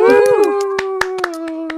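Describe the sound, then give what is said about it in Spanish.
Hands clap in a steady rhythm, about nine sharp claps in under two seconds, over a sustained, wavering high-pitched vocal tone that holds throughout. “Y recuerden que mientras no dejen de aplaudir, no dejamos de jugar.”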